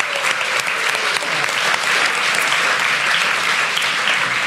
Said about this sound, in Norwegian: Skal vi juble litt for det? Ja, jubler vi det.